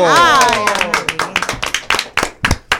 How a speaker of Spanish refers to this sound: Don Pincho es tendencia. ¿Por qué? Porque cumple 91 años. Un aplauso